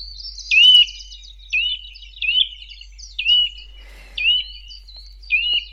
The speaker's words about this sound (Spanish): Esto es un trepador.